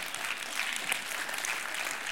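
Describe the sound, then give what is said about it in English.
A crowd claps steadily for a couple of seconds to show they have finished their Christmas gift shopping, a dense patter of many hands blending into a continuous wash of applause, moderately loud, with no voices standing out. “Will you clap if you're like, I'm done.”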